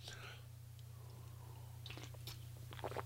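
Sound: sipping coffee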